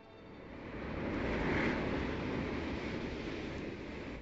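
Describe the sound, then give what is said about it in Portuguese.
Gentle sea waves wash in a steady, soft roar, swelling slightly and then easing back, with no voices present. “É quanto isso, navegando sobre as ondas mansas de um mar infinitamente azul, o escravo Nestório dirige os pensamentos para a breve chegada ao berço da civilização.”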